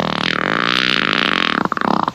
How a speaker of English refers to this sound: You're listening to Outlaw Radio, where we're proper gentlemen because we always ask. mind if I fart?